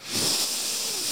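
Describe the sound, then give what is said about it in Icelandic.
A single deep, forceful inhale filling the lungs, a breathy hiss that swells quickly and holds steady for about a second, with no talking over it. “að fylla á lungun við þurfum ekki meira súrefni, það er nóg súrefni aðna, þetta snýst ekki um það heldur bara að róa niður andardráttin”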